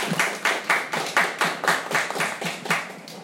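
Steady hand clapping for a guest in a quick, even rhythm, about a dozen sharp claps of moderate loudness with no talking over them.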